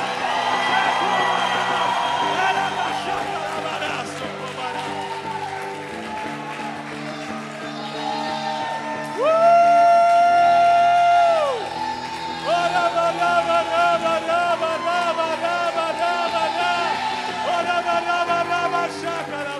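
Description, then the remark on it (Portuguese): A large group of people shouts and whoops loudly together in a victory cry, sustained, overlapping cries swelling into a peak of drawn-out high yells midway before settling into continued cheering. “dá um grito de vitória!”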